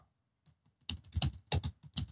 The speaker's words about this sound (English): I'm typing. I'm typing.